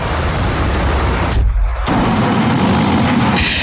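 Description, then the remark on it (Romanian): A loud taxi engine rumbles as the taxi pulls up, the low drone dipping briefly before the engine noise resumes steadily, with no voices. “Taxi! Taxi!”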